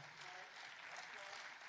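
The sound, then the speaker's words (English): A church audience clapping together, a steady, dense wash of applause that stays at an even, moderate loudness throughout without pause. “Now, now, now, now, now, most of y'all clapping, y'all ain't tithing.”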